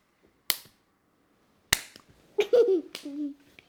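Two sharp, loud hand claps about a second apart, each a crisp slap, followed by a couple of softer claps mixed with a brief, high child's voice.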